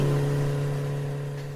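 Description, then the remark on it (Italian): A motorcycle engine hums with a steady, buzzing tone, fairly loud, easing off slightly over a couple of seconds after the motorcycle has stopped to refuel. No one speaks. “E la nostra motocicletta è, eh, si è fermata giusto per fare rifornimento e siamo pronti quindi. Partiamo subito”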